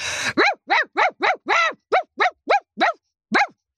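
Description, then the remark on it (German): A person imitates an aggressive dog, letting out about eleven loud barks in a quick, fairly even rhythm after a short rasping burst, with a brief pause before the last bark. “Ich zum Beispiel kann sehr gut bellen. Ich gebe mal kurze Kostprobe.”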